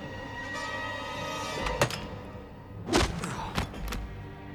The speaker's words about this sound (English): Uh, that's, that's Greed knocking out Argaius, but Gunray comes up behind him and clubs him.